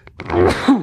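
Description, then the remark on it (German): A single sneeze, a short breathy intake rising into a sharp, noisy burst with a voiced, moaning edge, lasting under a second with no talking. “Gesundheit.”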